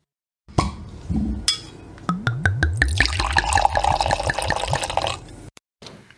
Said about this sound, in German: Jetzt aber erstmal Flasche auf und Prost.